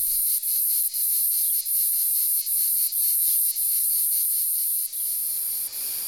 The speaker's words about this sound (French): les cigales font vibrer l'air de leur musique répétitive avec une obstination qui ne se démentira qu'au soir. Dominant le fond strident et presque continu de cicadatra atra, cicada orni à la régularité d'une machine à vapeur.